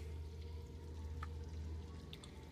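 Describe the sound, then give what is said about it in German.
Steady rushing and splashing of water from a river flowing relatively far below a bridge in a deep, dark cave, with a continuous low rumble and a few faint higher drips or plinks scattered through. “Du hörst das Wasser darunter her plätschern. Und das scheint relativ weit drunter ein äh, Fluss zu sein.”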